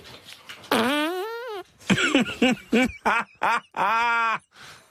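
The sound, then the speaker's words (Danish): A loud series of squeaky, tonal farts: one long drawn-out blast, then a quick run of short sputtering bursts, and another long steady one, with no talking. “Prøv lige at spille det hen igen, så vi kan høre prutten ren, som man, som man siger.”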